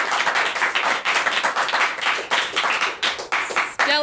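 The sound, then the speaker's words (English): An audience at a storytelling show in Chicago applauds the storytellers steadily, dense overlapping claps forming a loud, continuous wash of sound with no pauses, ending with a brief higher tonal sweep at the very end. “Another round of applause for everyone that told a story.”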